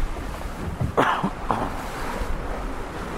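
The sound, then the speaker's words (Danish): Steady wind rushes crosswise across a sailboat, fairly loud, with a low rumble of water and a few brief knocks and creaks in the middle; no one speaks. “Så går vinden. Den kommer lige akkurat på tværs.”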